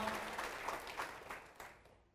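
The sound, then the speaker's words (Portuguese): A standing audience applauds the Lord together, a dense wash of clapping that holds steady for a couple of seconds, then gradually fades out, with no one speaking over it. “Vamos aplaudir ao Senhor, vamos aplaudir mais então.”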